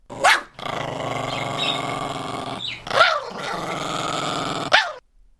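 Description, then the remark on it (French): A poodle out with a walker in the Bois de Boulogne, Paris, growls in a long, steady, rumbling snarl, broken by three sharp, higher yips or barks at the start, middle and end. No one speaks. “Bon, il y a aussi de simples promeneuses hein, qui viennent chercher un peu de verdure accompagnées de leur caniche.”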